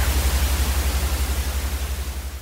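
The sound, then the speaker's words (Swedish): A car cabin ventilation fan blows air in a steady, even whoosh, with a low rumble underneath that pulses slightly and rhythmically. It is moderately loud, with no voices. “Men vad är det egentligen som låter bra i en fläkt i en bilkupé?”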